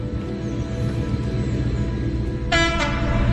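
A heavy Class 56 diesel locomotive roars through Shawford Station with a deep, throbbing engine rumble, then its two-tone horn blasts loudly near the end.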